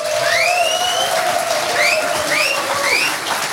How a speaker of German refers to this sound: Einen tosenden Applaus für Rasmus Engler und Jan Müller und ihren ersten Roman. Herzlich willkommen.